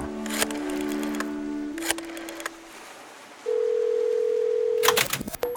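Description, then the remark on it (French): A steady telephone dial tone hums, interrupted by sharp clicks of keys, then a single higher tone holds briefly before more clattering handset noises end it. “Ah, où est-ce que j'ai mis le numéro des enfers, moi, déjà Ah, ça y est, il est là.”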